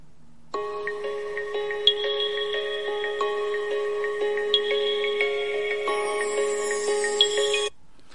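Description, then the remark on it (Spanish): A phone's critical alert tone, an audible alert from authorized sources warning of imminent or expected danger that overrides silent and do-not-disturb settings, plays alone for about seven seconds: a loud, bright, steady electronic chime with stacked tones shifting in a repeating pattern, starting and stopping abruptly. “Ese es el sonido de la alerta crítica.”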